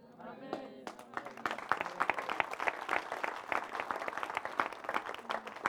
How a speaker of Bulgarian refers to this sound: Забележете дори начин, по който някой от вас пляскат.